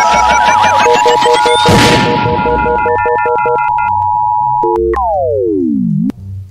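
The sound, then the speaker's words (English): A loud electronic alarm sound effect, called the polar vortex alarm, plays on its own: a steady synthetic tone with rapid pulsing beeps and stepped notes, ending in a long downward-sliding whine. “that, that was that was the polar vortex alarm.”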